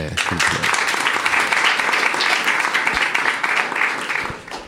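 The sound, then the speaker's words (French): Sustained audience applause for a guest, a dense crackle of many hands clapping at a steady loud level for several seconds before easing off slightly at the end. “Merci beaucoup d'être venu et euh, vous pouvez encore l'applaudir s'il vous plaît.”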